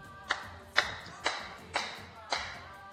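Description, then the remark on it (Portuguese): Five loud, sharp hand claps ring out one after another at a steady, unhurried pace, each with a crisp snap and a brief echoing tail. “Mostra aí, Totão, como é essa tapa.”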